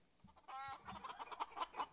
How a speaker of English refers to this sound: Um, oh, yeah, chicken. This is a chicken. this is a chicken.